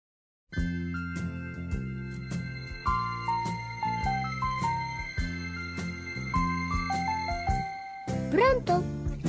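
A gentle Italian pop ballad intro from 1975 plays alone, with sustained chords under a stepwise falling melody and a steady, unhurried pulse, swelling briefly near the end.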